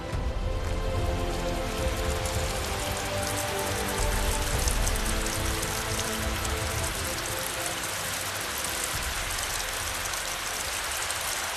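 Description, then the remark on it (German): Steady, dense rain pours down in a mountain gorge in Upper Bavaria at the foot of the Untersberg, a continuous hiss of countless drops spattering on surfaces, with no voices and little change in loudness throughout. “Und das Schöne, so eine Klamm, die hat ihren ganz eigenen speziellen Regen.”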